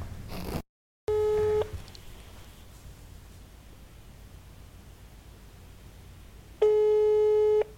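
An outgoing call's ringback tone: two steady electronic tone bursts about five seconds apart, each lasting around a second, over a low background hiss with no one speaking.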